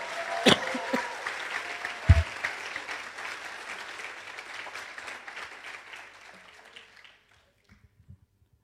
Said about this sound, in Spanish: Y aún podemos celebrar con gozo. Aplaude y dé un grito de júbilo al Señor.